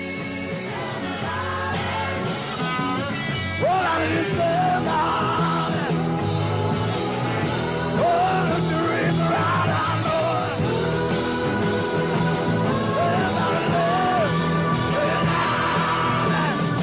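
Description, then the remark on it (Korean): A loud, full-band rock song plays throughout, with a raspy, strained male voice belting and wailing over driving instruments at a steady volume. “해서 어, 음악 하나 올려주셨는데 한번 아. 들어보고 가겠습니다.”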